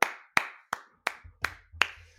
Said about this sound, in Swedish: alltså det är bara att applådera det här.